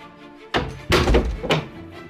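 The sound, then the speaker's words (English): A heavy wooden door swings shut with a deep, resonant thunk, bracketed by a lighter knock just before and a short rattle after, loud with no voices. “They took her to his castle, where they locked her in a room with a strong wooden door.”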